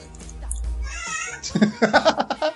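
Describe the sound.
A cat gives a drawn-out meow, then a person starts talking over the remaining moments, with a low hum in the background.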